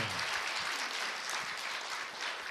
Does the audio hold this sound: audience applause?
yes